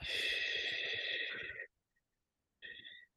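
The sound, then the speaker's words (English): A long, airy exhale of about a second and a half, a brief silence, then a shorter audible inhale made with a little sound during a breathing exercise, both fairly loud with a breathy, hissing texture. “Exhale. Empty out and then breathe in with a little sound.”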